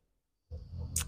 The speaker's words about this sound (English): I oh my gosh, if you heard that, that was my dog snoring.